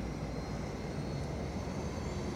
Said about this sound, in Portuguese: Helicóptero se preparando nesse momento, o motor já foi ligado. Ele vai levantar voo para socorrer essa vítima para o hospital.